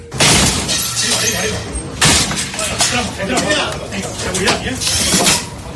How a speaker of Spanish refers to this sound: Es el sonido de los agentes de la policía entrando en un domicilio de Arona, en Tenerife. En el interior se encuentra el primer laboratorio de España de la nueva sustancia conocida como Rosin.